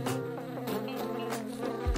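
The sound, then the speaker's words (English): A steady insect buzz drones without a break, a flying bee's fast-beating wings holding a rich, even hum with slight wavering in pitch and no voices. “When they're in the air, their wings make vibrations the human ear recognizes as buzzing.”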